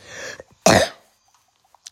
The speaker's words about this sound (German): Ich hier, ja, ich bin krank sehr, sehr lange schon. Ich habe krassen Husten.